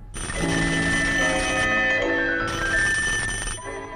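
A telephone bell rings loudly and close by, a steady metallic trill in two long bursts separated by a short pause. No one speaks.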